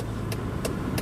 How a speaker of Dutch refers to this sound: Het mooiste geluid, hè? wat ik het mooiste geluid vind, dat is het geluid van een pinkertje.